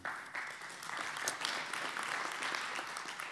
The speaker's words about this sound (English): God, this applause is for you.